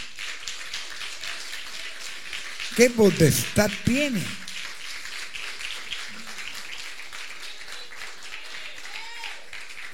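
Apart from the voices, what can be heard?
audience applauding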